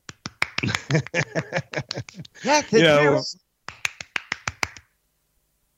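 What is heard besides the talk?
clapping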